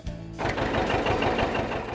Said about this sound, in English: This is a 58 720 diesel. It's a factory electric start. I bought this tractor in Waterloo, Wisconsin.